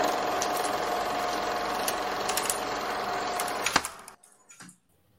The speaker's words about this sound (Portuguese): Esse, esse barulho de, de projetor no fundo é. Não, é, é, é, é um ar romântico. É um cineclube.